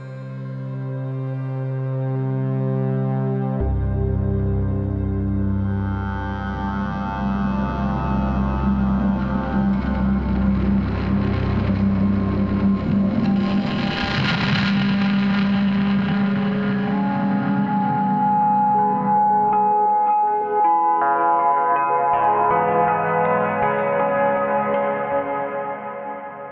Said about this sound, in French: Alors, ce soir, gros programme, mais comme d'habitude, on va se passer le générique.